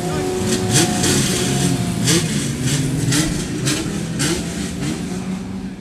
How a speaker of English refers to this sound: you were about to get out in these Porsche 911s that are just leaving the assembly area now